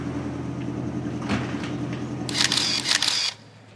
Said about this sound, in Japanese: ドアが閉まりますご注意ください